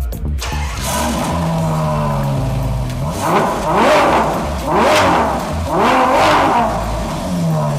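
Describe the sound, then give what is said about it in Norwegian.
A Ferrari Purosangue, a four-door SUV-like sports car, at Ferrari in Billingstad, turns over and settles into a low idle, then roars through four sharp, evenly spaced revs, loud, with a brief murmured exclamation at the start. “Dette er Ferrari Purosangue. Dette er på mange måter en SUV likevel, men det er også en sportsbil på alle mulige måter.”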